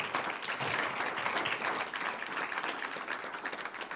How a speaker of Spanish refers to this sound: Un aplauso al que vive.